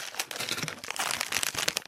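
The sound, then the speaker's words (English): Dense, crackly crinkling of a freeze-dried ice cream sandwich package from the National Air and Space Museum gift shop, like NASA astronaut food, being handled. Irregular bursts of bright rustle and snapping foil-like crackles run throughout, fairly quiet and continuous with no talking. “Is this an ice cream sandwich from NASA?”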